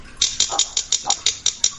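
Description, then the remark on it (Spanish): About ten quick, evenly spaced taps on a thin tinplate object ring out bright, a steady metallic rapping with no voices, struck to test whether it is plastic or metal. “Dale así, dale así a ver cómo suena, dale a ver si suena a plástico. Ah, ah no, no, no, no, eso es, es hojalata de la buena.”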